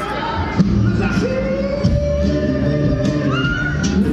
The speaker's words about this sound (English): The crowd is starting to swell here. Beautiful day in Midland, Ontario.